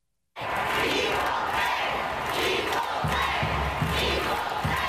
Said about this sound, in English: That's a packed crowd chanting equal pay last night at Audi Field here in Washington, moments after the men's and women's U.S. national teams signed a historic collective bargaining agreement.